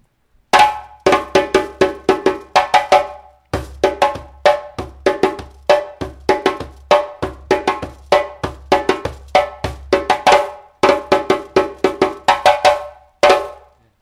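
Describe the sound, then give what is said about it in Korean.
The first pattern of the West African moribayassa rhythm: bright, ringing bell-like strikes over a low drum tone, repeating quick phrases of hits separated by brief pauses, with no talking. “몰입하사 첫 번째 리듬입니다. 들어보세요.”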